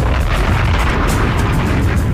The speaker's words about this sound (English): Yeah, that deserves the … explosion, of course.